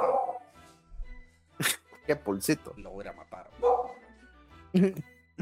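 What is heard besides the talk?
dog barking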